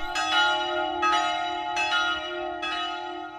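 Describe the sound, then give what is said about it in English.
Church bells of the Brutalist-style St. Stephanus Church in Münster, cooled by an air conditioning unit in the belfry, ring at a slightly raised pitch, struck about four times at a steady, unhurried rhythm, with long ringing tones overlapping between strikes. Fairly loud, with no voices. “he recorded the sound of British artist Cerith Wyn Evans' project, A Modified Threshold, for Munster”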